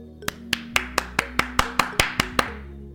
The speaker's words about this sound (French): on applaudit les papas.